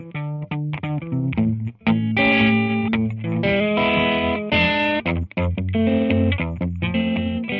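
A short instrumental guitar passage by a band, from yamendo.com under a Creative Commons License, loud and steady, with distorted, effects-laden electric tones playing chords and melody for several seconds with no voices.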